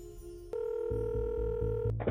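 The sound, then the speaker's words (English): A steady electronic telephone ringing tone hums through a phone line before a call is answered, shifting pitch partway through, with a low pulsing rhythm underneath and no voices. “Then there's a phone call.”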